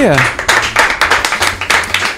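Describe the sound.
A short burst of applause from a small group in a studio after a rap performance, steady overlapping claps, with some voice sounds mixed in underneath.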